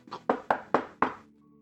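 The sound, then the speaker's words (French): Five firm knocks on a door in a dark, damp place, in a quick, steady rhythm, each a sharp, resonant thud that rings briefly. Clear, with no voices, and quiet settles in afterward. “Cogne à la porte.”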